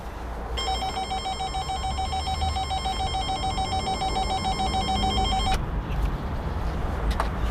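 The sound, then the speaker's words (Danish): A door intercom, rung several times during a long wait for an answer, gives one long, steady electronic ring lasting about five seconds, then cuts off, leaving a constant low outdoor rumble with faint clicks. “Vi venter i lang tid ved dørtelefonen, ringer på flere gange, og pludselig toner en grøde stemme frem i højtaleren.”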